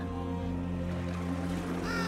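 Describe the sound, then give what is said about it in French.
Two crows, one perched on each shoulder of an old man in a boat, caw against a steady, droning low hum that fills the background, with the harsh calls blending into a continuous, fairly loud wash of sound. “À son bord, un vieil homme immobile, un corbeau perché sur chaque épaule.”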